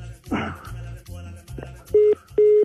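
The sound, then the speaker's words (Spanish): Telephone dialing tones: two loud, steady electronic beeps in quick succession near the end, following a stretch of muffled voices talking. “pero la, pero la llamada seguía corriendo. Ese es un efecto”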